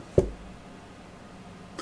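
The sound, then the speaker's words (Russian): A single heavy knock on a door lands sharply near the start, followed by a quiet stretch of room tone with no voices; someone pounding on a door after ringing went unanswered. “И тогда Равзильбу стал, начал колотить в дверь.”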